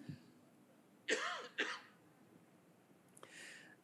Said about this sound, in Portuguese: Eu estou lutando para não tossir aqui, irmãos.